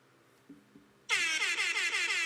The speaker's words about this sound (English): Yes, I have breaking news. Breaking news. Let me hit the sounder. Hold on.